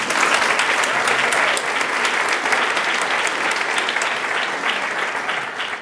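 An audience claps steadily throughout, a dense, loud patter of many hands with crisp individual claps popping through, holding even for about six seconds before easing slightly at the end.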